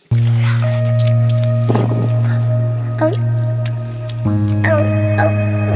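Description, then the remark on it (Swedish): Wet, squishy chewing of gum, a few soft smacking sounds at irregular intervals over a steady low humming drone that runs throughout. “Jag tuggar. Vad tuggar du? På tuggummi.”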